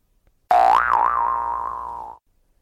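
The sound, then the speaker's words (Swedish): A single loud metallic boing, like a huge steel spring snapping loose, with a sharp attack and a wobbling, warbling ring that slowly fades over about a second and a half. “Och sen lät det som en gigantisk stålfjäder i spänn gick av och all drivning förlorades omgående.”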